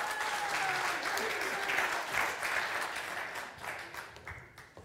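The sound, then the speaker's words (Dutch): An audience claps for grace and goodness, a steady, dense wash of applause that holds strong for several seconds and then gradually thins and fades toward the end. “Applaus voor genade en goedheid.”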